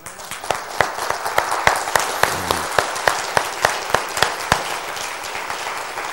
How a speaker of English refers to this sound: I want you to give God the glory through an applause for our young people that's in our church.